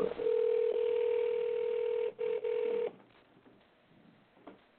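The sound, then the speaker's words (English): A steady electronic telephone tone hums loudly for about three seconds, briefly cut twice near the end, then stops, leaving quiet background noise. “All right, family, phone is ringing.”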